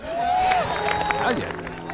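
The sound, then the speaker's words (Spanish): Medical staff at a hospital in New York applaud steadily as recovered COVID-19 patients are discharged, a dense patter of many hands clapping, with scattered cheers and voices mixed into the noise. “Ya no basta de tandas de fuertes aplausos”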